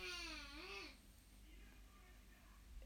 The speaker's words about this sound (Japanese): いや今子供たちは悠々白書を見ながら揉めていますね